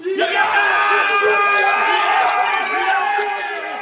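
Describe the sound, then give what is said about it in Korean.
A crowd of company soldiers cheering and shouting together, excited by a victory, loud and sustained, many overlapping voices whooping for several seconds. “밖으로 나온 고이산이 승리에 잔뜩 들떠 소리를 지르는 중대원들을 보고 인상을 썼다.”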